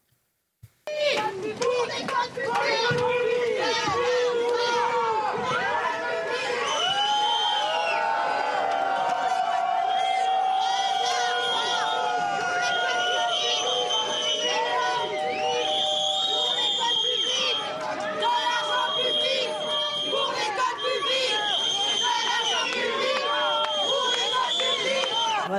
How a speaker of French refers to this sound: Hein, on voit qu'elle se fait euh, huer.